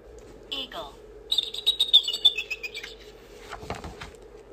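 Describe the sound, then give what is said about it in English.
A shrill eagle call: piercing, high whistling cries that slide downward in a quick series, clear, followed by a brief burst of rustling or flapping. “The eagle soars up high.”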